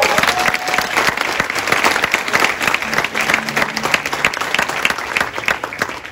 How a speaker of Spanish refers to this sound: ¿Cuántos le dan aplauso a Dios por eso?